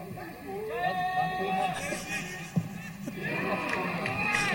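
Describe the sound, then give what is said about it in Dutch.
A large crowd of football supporters at a Hamershout match roars and chants continuously, many voices blending into a loud, steady wall of cheering with a brief sharp thump midway, as the referee whistles for a penalty. “Ja, dat zijn supporters. Dat hoor je.”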